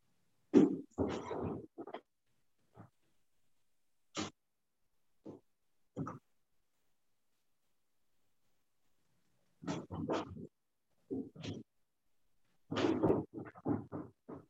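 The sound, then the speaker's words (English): An American Bulldog snorts and grunts in irregular bursts, with rough, wet clusters at the start and end and scattered single snuffles between stretches of silence. No one speaks. “He's giving me a funny look. You're a good boy, huh? Thank God American Bulldogs don't bark a lot.”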